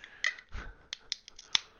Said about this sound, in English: I'm opening a beer, and cheers to Peacemaker.